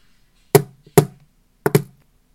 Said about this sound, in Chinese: 不知道大家有听出来吗？中间的敲门声。有一个重叠的声音。是的，当我在敲第二次门的时候，有人在门的里面会敲我了。